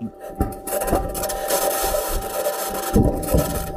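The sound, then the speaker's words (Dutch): A harsh, continuous grinding and scraping rattle with a steady high-pitched whine from the Perseverance rover driving on its metal wheels over rough ground on Mars, with periodic clunks and no voices. “Toen kwam het geluid bovendrijven, van het rijden van... We hadden de wind al gehoord hè, maar. Maar het geluid van het rijden van Perseverance...”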